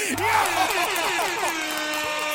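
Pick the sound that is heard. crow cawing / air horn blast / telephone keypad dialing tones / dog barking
air horn blast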